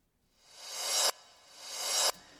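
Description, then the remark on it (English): A short reversed CD transition sound effect, played on its own with the other track muted: two hissy, bright swells that build steadily in loudness and then cut off abruptly, with no talking. “and I've got this reverse CD sound.”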